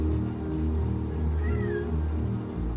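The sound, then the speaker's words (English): A cat meows insistently in a long, drawn-out, whining cry that rises and wavers, fairly loud with no talking over it. “Why are you crying? You can settle down on the couch.”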